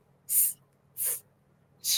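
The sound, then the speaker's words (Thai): A voice makes three short, breathy hissing consonant sounds, like drawn-out S, F and H, spaced evenly apart with quiet gaps between, fairly soft, with no other talking. “อย่างเงี้ย คือตัว S ตัว F ตัว H H อะไรอย่างเงี้ยครับ”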